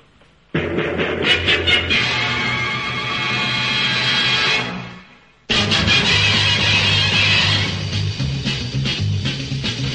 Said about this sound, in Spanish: pues vamos ahora a escuchar la sintonía de la serie de animación.